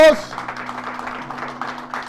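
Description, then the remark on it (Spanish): An audience claps together for the Lord, praising God, in a steady, dense patter of many hands, with a low sustained tone humming underneath and a murmur of voices mixed in. “Denle palmas al Señor, alaben a Dios,”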